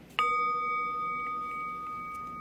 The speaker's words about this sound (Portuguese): Eu vou convidar o sino a soar e não precisa se mexer instantaneamente.